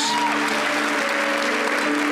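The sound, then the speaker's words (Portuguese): A crowd claps loudly and steadily, giving applause to Jesus, a dense wash of applause with a sustained tonal hum, likely music or organ, held underneath throughout. “Mais uma vez, vamos dar uma salda de palmas a Jesus.”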